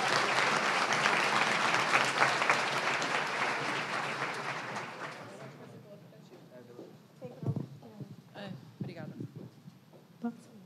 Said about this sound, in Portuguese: Uma salva de palmas pro irmão aí, ó.